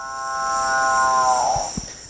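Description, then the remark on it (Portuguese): A single deep, cow-like mooing call from a species living in the Amazon forest canopy holds steady for over a second, then fades into a few soft low thumps, with a constant high insect-like hiss in the background. “Então, se você ouvir esse boi mugindo na Amazônia, nas copas, não fica assustado, não é um boi voador”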